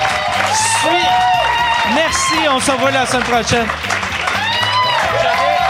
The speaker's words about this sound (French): Merci beaucoup. Applaudissez Jean-René Dufort, Jean-Thomas Jobin. Merci.